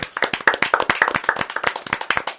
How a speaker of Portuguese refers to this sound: E um cara sensacional que está ouvindo o programa hoje de férias, quero desejar a ele boas férias, uma salva de palmas,